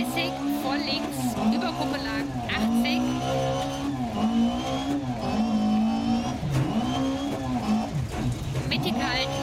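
A rally car engine in a racing video game revs loudly and continuously, its pitch repeatedly rising and dipping as it accelerates and shifts, with a harsh, buzzing roar throughout.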